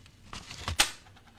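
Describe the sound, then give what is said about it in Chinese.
A one-yuan coin slips out of a mailed letter envelope from Shenyang: a few soft taps and rustles, then one sharp, bright metallic clink that quickly fades. No one speaks. “听到没有？一块钱掉出来了。”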